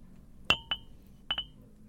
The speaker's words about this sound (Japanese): 誰かのシャープペンシルが床に落ちる音で我に返った。